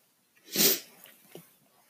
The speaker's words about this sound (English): and it just hurts every time I like cough. I just need to like spray like a hose down my throat. See, it hurts. It hurts so much.